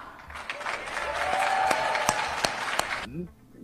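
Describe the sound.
Audience applause, a dense wash of many hands clapping for about three seconds with a few sharp individual claps standing out, then cutting off abruptly as a voice begins speaking.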